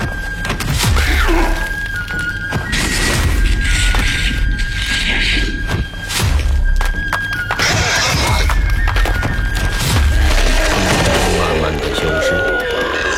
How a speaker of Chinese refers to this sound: 黄潇说完，直接把蜥蜴人按在地上，不停地举起、砸下、举起、再砸下。地面上发出砰砰砰的剧烈响声，四周的尘土和碎石四溅飞扬。